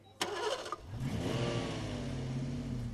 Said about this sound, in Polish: No i odpalasz sobie auto.